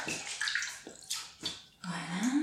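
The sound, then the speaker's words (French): Water runs from a tap in uneven, splashy bursts as someone rinses earth off their hands beneath it, fairly loud, ending with a rising gurgle as the flow fills a basin. No one speaks. “je vais me rincer les mains parce que j'ai touché un peu la terre.”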